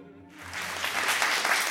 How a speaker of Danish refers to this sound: Ja, nu har I ikke hørt mig nu, men, men tak for klapsalven om ikke andet.